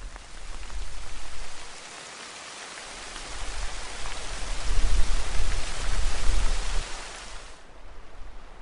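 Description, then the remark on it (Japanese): Heavy rain pours down steadily, a dense wash of hiss and patter with low rumbling swells, rising in intensity midway before easing slightly near the end. No voices. “ひどい雨だな”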